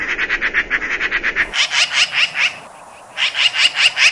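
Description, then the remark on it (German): A magpie's harsh chattering call, a fast rattling string of loud, scratchy notes that breaks off briefly and then resumes, clear with no voices. “Kann man ja auch gern mal erkennen, wenn man sie einfach nur so hört.”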